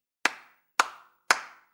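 In a told fairy tale, Marusya claps her hands to summon two sturdy young men: three sharp hand claps at a steady, unhurried pace. Each is a bright, crisp crack that rings out briefly and fades, with no voices around them.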